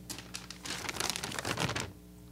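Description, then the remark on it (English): A piece of paper is handled, rustling and crinkling in a quick burst of dry crackles for about a second, then stopping into quiet. No one speaks. “No, it's just a piece of paper someone gave me a while back.”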